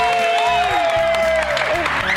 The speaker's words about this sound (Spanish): Bueno, un aplauso para ti.